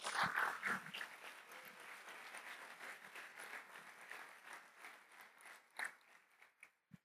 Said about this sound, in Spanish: ¿Cuántos le dan un aplauso al Señor Jesús?